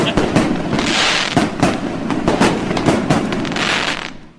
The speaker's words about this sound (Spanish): Gracias, muchachos de Tultepec. Traje dos señores de Tultepec a tronar cohetes.